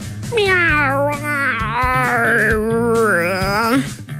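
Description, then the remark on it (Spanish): A cat lets out a long, drawn-out meow, loud, wavering up and down in pitch for several seconds before trailing off, with a low hum underneath. “No, tenés que bajar la aplicación esa traducción eh, eh, gatuna.”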